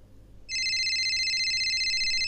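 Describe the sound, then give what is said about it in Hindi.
A phone rings loudly and steadily late at night with an incoming call, a bright electronic tone starting suddenly after a brief moment of quiet hiss and continuing without pause. “लगता है आज कोई गाली खा के ही मानेगा जो भी है उसने बिना अपना फ़ोन देखे हाथ में जैसे ही फ़ोन उठाया”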